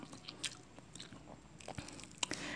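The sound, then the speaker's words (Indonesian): Crunchy chewing of fried catfish during a mukbang, with repeated crisp bites and crackles in an irregular rhythm, fairly quiet and with no talking. “Terus apa kabar yang mukbang yang terdengar sekali ngecap-ngecapnya itu di di mana-mana itu udah ada udah ditamparin kali gara-gara nggak sopan emang tan boykun mukbang berisik hmm.”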